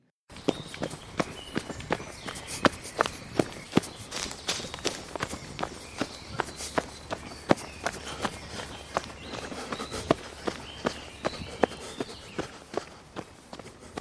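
Quick, steady footsteps of Laban running to see Jacob, a rapid series of sharp thuds, heard alone without any talking.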